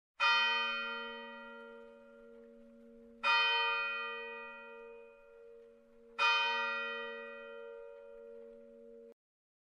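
A church bell tolls three times at a slow, steady pace, each strike ringing out loudly and humming on with a long, shimmering decay before the next. No voices are heard.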